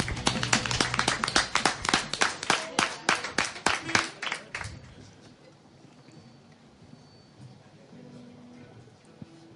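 Loud, fast clapping in a steady rhythm, around twenty sharp claps over four seconds as an audience applauds, then it stops and only a faint, quiet background remains.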